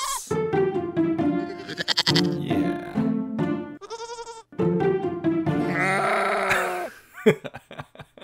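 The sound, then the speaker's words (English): Several loud, wavering bleats from milk goats kept in a backyard, one after another with short pauses between them, followed by a brief scuffle of noise at the end. “um, we had uh, secret go- milk goats in the backyard secret secret we weren't supposed to have goats nice secret goats”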